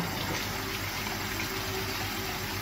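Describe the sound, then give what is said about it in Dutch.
A kitchen tap runs steadily into a tub of water during a demonstration in which a ping-pong ball follows the stream: a continuous rush of splashing water with a faint low hum underneath and no talking. “Ik sta in de keuken en ik heb hier een bak met water. Misschien kunnen jullie het wel zien. En ik doe de kraan aan.”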